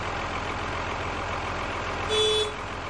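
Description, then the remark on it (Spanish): A tractor's heavy diesel engine idles steadily as it stops in front of a house's front steps, a low rumbling drone throughout, with a brief tonal whine rising briefly near the end. “Su padre para un tractor frente a ella y hablan en lengua de signos.”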